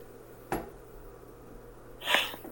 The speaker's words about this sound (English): I have to yawn.